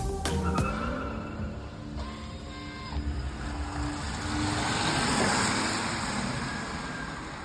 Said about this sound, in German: Ja, klingt nach einem, äh, muss man sagen, stinknormaler Elektrosound. Ne? Klingt nach das einem beliebigen Elektroauto, wenn man so möchte. Man hört viel Reifenabrollgeräusch und ein bisschen Summen.